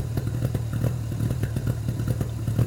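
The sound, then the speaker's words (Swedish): An old car engine, just started using the choke, idles steadily, a low rumbling drone with rapid, uneven mechanical ticking and clatter pulsing through it, with no voices. “Lättare att starta den här än vad det är på andra bilar.”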